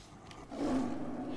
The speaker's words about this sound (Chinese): 就在医生为妈妈看病的时候，小老虎听到门前传来一阵熟悉、凶猛的低吼声。